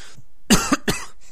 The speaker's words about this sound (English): excuse me for the coughing, by the way. Try to do my best to keep that out, but it's a really cold, dry weather here.